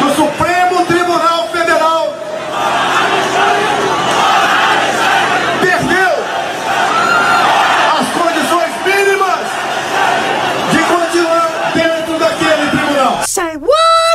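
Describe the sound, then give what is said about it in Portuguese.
A large crowd cheers and applauds loudly for about fourteen seconds, a dense roar of clapping with whoops and shouted voices rising over it, ending in an abrupt cutoff. “as pessoas aplaudiram.”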